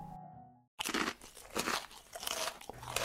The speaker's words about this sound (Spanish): Sin embargo, sus sollozos fueron interrumpidos por el ruido de alguien masticando.